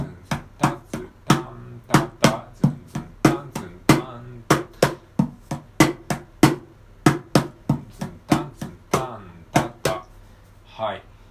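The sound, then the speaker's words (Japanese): Sharp wooden slaps and thumps on a mini cajon in a steady groove, the first two beats played as a normal rhythm pattern and the last two beats as a fill-in, quicker clusters of hits breaking the pattern. No one speaks over the drumming. “これを前半2拍は普通に叩いて後半の2拍をフィルインにします”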